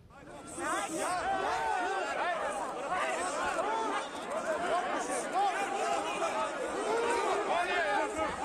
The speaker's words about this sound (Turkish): İstanbul Taksiciler Esnaf Odası Genel Kurulu mevcut başkanı destekleyenlerle muhalifler arasında kavga çıktı.